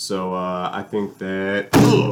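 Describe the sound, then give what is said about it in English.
A man speaks hesitantly, then a single loud, sharp smack of a hand swatting at a fly and missing it lands, with his voice breaking off in a startled exclamation right as it hits. “there was a fly there. Sorry about that noise, guys.”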